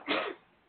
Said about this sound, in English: Bless you.